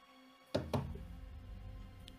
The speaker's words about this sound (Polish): Dwa cichutkie tupnięcia.